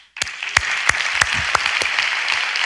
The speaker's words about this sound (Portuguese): Vamos dispensar vocês da aproximação física, mas a aproximação aqui do nosso coração vai ser expressa com a salva de palmas.